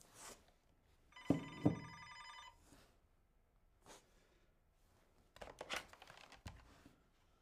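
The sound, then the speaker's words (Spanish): An old-style telephone bell rings in one short metallic burst at a police station on a rainy Monday morning, followed by handling noises and rustling as the police commissioner picks up the receiver. “El teléfono suena.”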